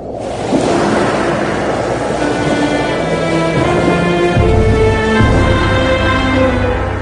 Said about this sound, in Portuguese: E Deus, o Senhor, com um vento leste muito forte, fez com que o mar recuasse. vento soprou a noite inteira e fez o mar virar terra seca.